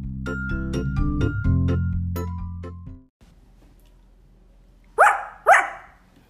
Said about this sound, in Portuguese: Latiu o cachorro como se dissesse que ele também não o havia visto.